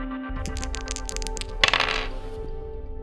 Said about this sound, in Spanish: Eh, tiramos ese dado.